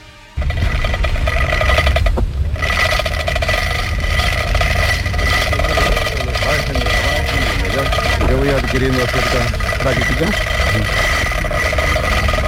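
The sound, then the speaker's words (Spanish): A loud, steady mechanical grinding and rumble of a chain lowering the first foundation stone of Expo 92 on the Isla de la Cartuja, running continuously after a brief quiet start, with people talking faintly underneath. “Es el ruido de una cadena, ¿no? Para bajar la piedra.”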